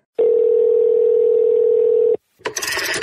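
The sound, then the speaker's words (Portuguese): A telephone rings once with a steady, loud electronic tone that holds for about two seconds, cuts off abruptly, and is followed by a short burst of rustling noise. “Ei, alguém atende o telefone?”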